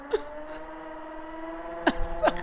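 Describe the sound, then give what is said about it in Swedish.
A cordless power screwdriver, being used by someone over there, whirs steadily in a continuous, even-pitched motor drone, with a couple of brief breathy vocal sounds near the end. “Ja, men det är ju typiskt att precis när man sitter här och ska ja, podda Ja, då, ja. då är det någon som ska börja med någon jävla skruvdragare.”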